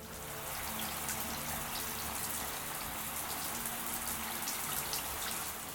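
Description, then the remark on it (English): Shower water runs in a steady, hissing spray, fairly loud, pattering continuously without pause and with no voices, from a shower using the little hot water left. “In the shower, I used the little hot water we had left to wash away my fears of Charlotte's warning.”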